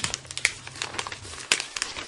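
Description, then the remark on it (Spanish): Paper being crumpled and folded into a small hat, a steady run of crisp crinkles with a few sharper snaps standing out, heard alone without any talking. “¿Qué hay acerca de todas las personas que se la pasan doblando papeles?”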